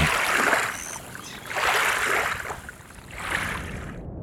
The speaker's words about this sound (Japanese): 今朝は静かな沼に響く漁の音色茨城県沼のしじみ漁それではお聴きください